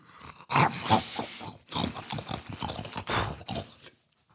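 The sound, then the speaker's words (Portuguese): A voice imitates the loud, messy chewing of a burger as done at the end of TikTok videos: wet smacking, slurping and crunchy mouth noises in irregular bursts, with short pauses between, no words spoken. “E quem me está a ouvir lá em casa, péssima essa desculpa terem que estar a ouvir este barulho.”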